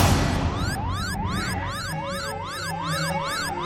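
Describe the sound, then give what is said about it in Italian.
An alarm goes off in the prison cell of Killex, wailing continuously, its pitch sweeping up and down in a fast, regular zigzag like a siren, loud and steady for the whole stretch with a low rumble beneath and no voices. “È scattato l'allarme nella cella di Killex!”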